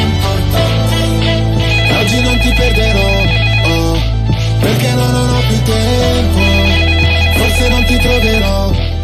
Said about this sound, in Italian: No, sento che arrivano telefonate all'improvviso, cioè nessuno mi avvisa dalla regia, quindi potrebbe essere chiunque. Pronto?